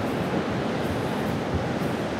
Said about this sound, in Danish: Nogle gange er det svært at sætte ord på. Kridhvide, skummende, brusende bølger, der